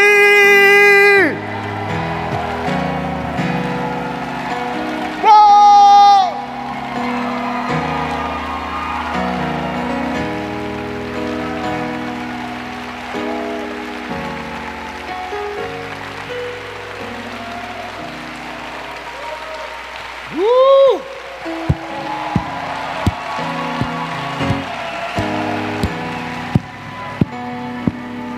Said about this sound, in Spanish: No le aplauda tanto, ¿eh? No le aplauda tanto.